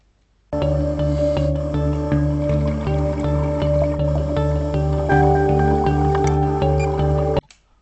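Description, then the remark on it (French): An instrumental film soundtrack made in GarageBand plays back as background music in an iMovie project for about seven seconds, with sustained harmonic tones over a steady pulsing beat. It starts abruptly and cuts off sharply, with no voices. “Voilà, la bande-son réalisée dans GarageBand remplace maintenant le son initial de votre film et vos images ont toujours leur qualité originale.”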